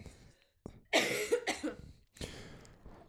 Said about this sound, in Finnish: Sulla tulee yskä takas. Niin tulee, mulla oli ihan hirveä yskä.